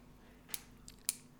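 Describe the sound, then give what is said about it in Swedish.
A pen clicks two or three times as someone fiddles with it, sharp and crisp but quiet, with brief pauses between the clicks and no one talking. “Sluta hålla på med pennan”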